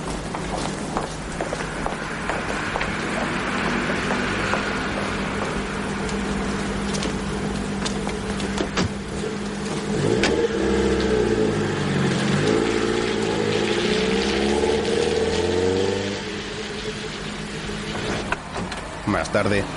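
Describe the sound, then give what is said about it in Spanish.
Quick footsteps as two people walk off briskly, followed by a car door as they get into a car and the driver starts the engine, which revs with a rising hum and drives away as the sound fades out. “Luego suben a un coche y el conductor lo pone en marcha.”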